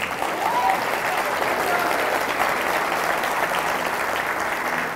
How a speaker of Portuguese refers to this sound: Dê um aplauso a Ele.